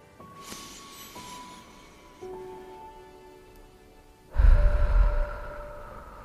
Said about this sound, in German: Und dann atmen wir dreimal tief in den unteren Bauch. Lege dazu auch gerne deine Hand auf den Bauch, dass du richtig spürst, wie sich die Bauchdecke hebt beim Atmen.